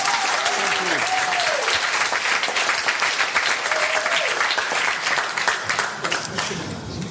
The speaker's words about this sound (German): Nochmal extra Applaus bitte.